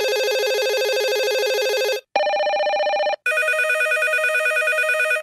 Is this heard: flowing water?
no